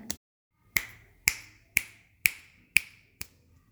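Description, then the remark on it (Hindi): A steady run of about six sharp finger snaps made with both hands' fingers, imitating the cracking of a father's leg bones when he stands up, evenly spaced roughly half a second apart, crisp with a quick ringing decay, nothing else in the background. “जब अप्पा खड़े होते हैं तब उनके पैरों की हड्डियाँ चटक जाती हैं जैसे कोई कपड़ा हवा में फड़कता है बिल्कुल वैसे फट फट फट मैं भी अपनी दोनों उंगलियों से चुटकी बजाकर इस आवाज़ की नकल करती हूँ”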